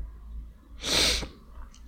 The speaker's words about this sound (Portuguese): E eu acordo assim, a fungar. Ah, desculpem lá, nojento, eu sei.